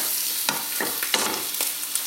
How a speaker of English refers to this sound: So I've pulled bacon apart with a fork and spatula, so it's got lumps of it now.